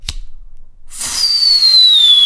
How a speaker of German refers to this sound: Lass uns noch die letzte Rakete, die wir hier haben, nochmal steigen. Moment, ich mache eben an.